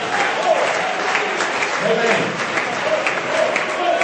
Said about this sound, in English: Oh, let's clap our hands and magnify him this morning.